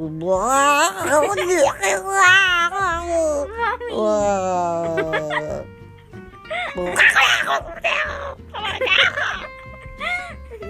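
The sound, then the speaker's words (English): A voice imitates a screeching cat with a string of rising, wavering yowls and shrieks, loud and close, followed by harsher, noisier screeches toward the end. “a witch and a cat become a watch. The wicked watch let out a screech and fled.”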